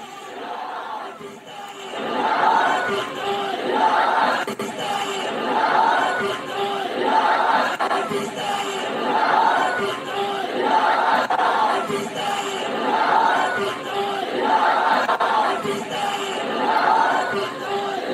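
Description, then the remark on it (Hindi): A large crowd at a Milad-un-Nabi procession, carrying an Indian flag, chants slogans including "Pakistan Zindabad" in unison, loud and rhythmic, with repeated call-and-response surges every couple of seconds and a dense, continuous roar of voices underneath. “भारत का झंडा लेकर पाकिस्तान जिंदाबाद के नारे लग रहे हैं ये है मिलादुल नबी भारत का झंडा और नारे लग रहे हैं पाकिस्तान जिंदाबाद के”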